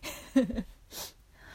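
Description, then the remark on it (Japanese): A brief soft mouth sound, then an airy draw of breath as someone smokes a cigarette, pulling the smoke deep into the lungs, followed by quiet; no one speaks. “肺に深く煙を入れられてますでしょうか期待にお応えできてますでしょうか”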